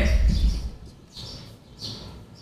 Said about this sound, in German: Ganz mal, ich muss mal kurz mit ja. den Spatzen reden.